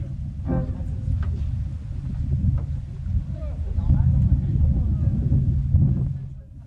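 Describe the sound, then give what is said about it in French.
Wind buffets an outdoor stage microphone at the open-air theatre of Ravatuel during the opening of a festival's 35th edition, making a steady, loud low rumble that swells and gusts throughout, with faint voices and murmurs in the background. “Et vous l'entendez, le, vent souffle toujours ici, en sur le théâtre de verdure de Ravatuel pour cette ouverture de la 35e édition.”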